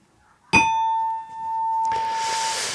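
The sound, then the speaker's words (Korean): A correct-answer chime rings out with a sharp bright strike, then a single clear bell tone sustains for about two seconds while a soft hiss swells underneath as it fades. “예, 이렇게 딩동댕 받은 분들 알려드리겠습니다.”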